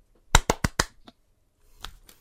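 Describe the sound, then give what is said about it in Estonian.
Four sharp hand claps in a quick, evenly spaced rhythm, the clapping from the TV show Friends, then a fainter single clap and some softer rustling, with no talking. “aa, okei, okei, Friendsi, Friendsi plaksutamist.”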